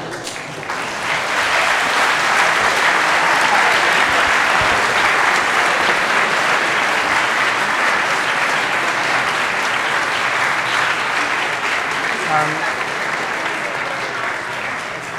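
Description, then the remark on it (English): A sustained last round of audience applause for the contributors at an evening event at the University of Cambridge, dense and steady clapping that swells in after a second and continues strongly for the full fifteen seconds, with no voices standing out. “And can we have one round, last round of applause for all the contributors tonight, the questions”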